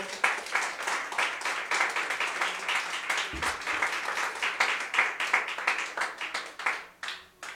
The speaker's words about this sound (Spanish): Denle ofrenda de palmas al Señor con todo su corazón.